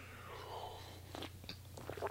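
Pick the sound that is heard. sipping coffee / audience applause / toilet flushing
sipping coffee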